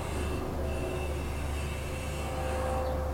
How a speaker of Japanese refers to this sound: ヘリコプターかな音がいっぱい入ってたら ごめんなさいでもそのまま喋るね